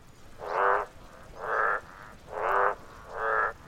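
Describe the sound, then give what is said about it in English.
Frogs croak in a steady, rhythmic chorus: four loud, evenly spaced calls, each a buzzy, resonant pulse of under a second, with brief pauses between them and no voices. “Let's let's go back to frogs for a moment.”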